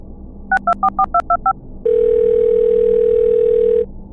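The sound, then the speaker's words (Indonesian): A telephone sounds: seven quick keypad beeps in a row, then a single long, steady ringing tone held for about two seconds, fairly loud, with no voices. “Telepon lu.”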